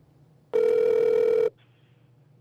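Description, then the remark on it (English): A single ring of an outgoing phone call to the speaker's grandfather: one loud, steady, buzzy tone lasting about a second, followed by quiet line hiss and a faint click at the end. “we got a chance to call Grandpa as I know is all of our listeners' favorite thing to do”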